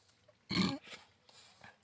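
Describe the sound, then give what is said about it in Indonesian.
A single short, loud burp erupts, a low guttural belch lasting about a quarter second, followed by faint breathy mouth noises. “cewek gua yang kadang gua lupa, bentar, sendawa”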